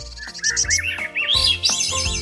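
small birds chirping

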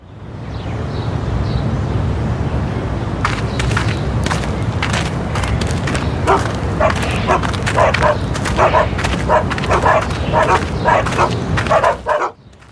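dogs barking

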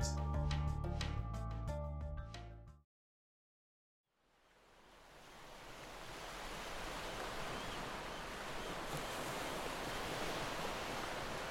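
ocean waves

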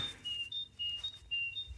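great tits singing

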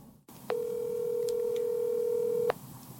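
telephone dialing tones

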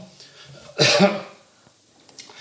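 cough

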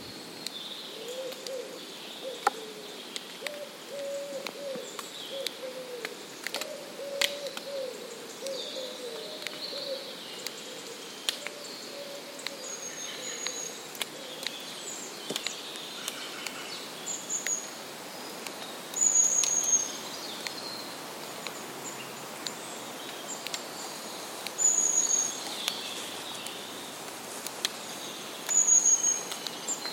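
birds singing

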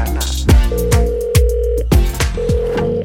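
telephone dial tone

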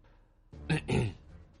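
throat clearing

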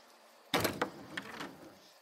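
door being opened

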